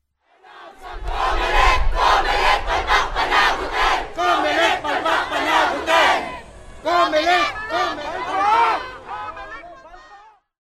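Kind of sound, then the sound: crowd, protest crowd shouting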